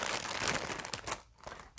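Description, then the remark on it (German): Crinkly plastic bag rustling and crackling as a small red heart-shaped soap is pulled out of it, dense irregular crackles for about a second before a brief pause and a final rustle. “Ähm, ich nehme die mal aus ihrer Tüte raus.”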